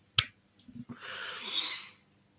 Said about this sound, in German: Wow. Dafür gibt's genau einen Applaus von mir.